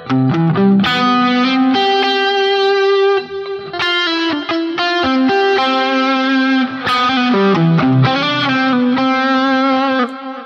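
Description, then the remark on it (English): An electric guitar plays a flowing arpeggio with an added major seventh, notes ringing into one another through a distorted, effects-heavy tone, loud and steady with no voices. “In this case, we're adding in that major seventh, right?”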